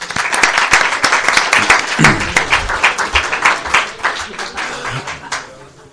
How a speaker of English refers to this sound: So let's give them a round of applause.